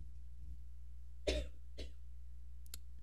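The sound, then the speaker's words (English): Two harsh coughs ring out, a sharp loud one followed half a second later by a softer one, over a steady low hum with no talking. “Hey, chill out with that coughing.”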